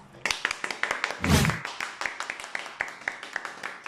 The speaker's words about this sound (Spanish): Un aplauso.